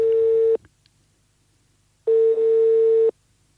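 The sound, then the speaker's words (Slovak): A telephone line tone signalling that the called number is unavailable: two loud, steady mid-pitched beeps, the first short and the second about a second long, separated by a pause of silence, with no voices. “Ľutujeme, volané číslo je nedostupné.”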